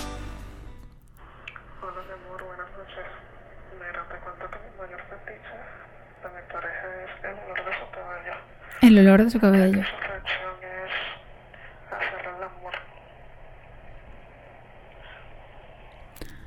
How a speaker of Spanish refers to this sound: Bueno, esa nota no se escuchó muy bien. La persona creo que tenía el celular muy pegado a la boca.